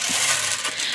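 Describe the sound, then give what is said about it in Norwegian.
A steady, loud clattering rattle of many small balls tumbling together inside the spinning drum of the P3 Morgen radio team's bingo machine, continuous for the whole second with no voices. “Man, eh, man snurrer på en slags trommel med baller inni, og så, å, så kommer det en ball ut.”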